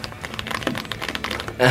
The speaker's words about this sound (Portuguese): Tá vendo? Ele faz barulhinho de teclado ele é, e ele parece, quando você digita, a sensação tátil dele lembra um pouquinho aquelas aquele plástico bolha. Então cada vez que eu aperto faz um plec, plec, plec. É, é, bom de digitar.